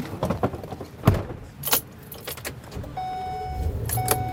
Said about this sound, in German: Zur Snow Lodge am berühmten Old Faithful Geysir geht es nur mit dem Schneebus eines Touranbieters. Knallgelbe Busse, deren Reifen einen Durchmesser von mehr als einem Meter haben.